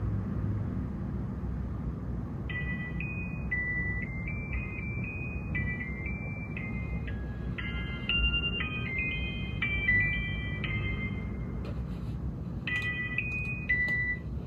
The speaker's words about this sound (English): But besides the mobile ringtone, what I find really clever is the use of wedding march here.